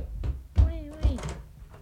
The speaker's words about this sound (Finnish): Mun tarvii avata ovi.